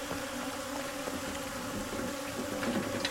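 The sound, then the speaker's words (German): A dense, steady buzzing like a swarm of bees drones continuously, with layered humming tones and occasional louder passes. No one speaks. “Ja, wie Bienen, wie ein Bienenschwarm eigentlich.”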